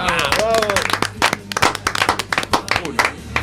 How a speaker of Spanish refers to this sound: yo creo que merece un aplauso de todos. ¿eh? Por favor.